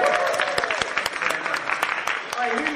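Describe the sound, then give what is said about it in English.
A crowd claps in a dense, steady burst of applause lasting a few seconds, with sharp scattered hand claps and a faint murmur of voices mixed in, welcoming the start of a book cover design Wheel of Fortune session. “Can you round of applause, please?”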